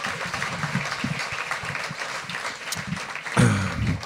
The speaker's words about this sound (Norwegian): Syns dere skal klappe litt for eh, dagens gjest, astronom